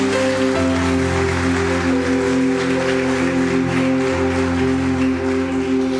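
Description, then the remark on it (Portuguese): A crowd claps steadily and densely for several seconds, a continuous wash of applause layered over sustained, held keyboard or organ chords. “Então dá uma salva de palmas para ele para eu beber uma água aqui.”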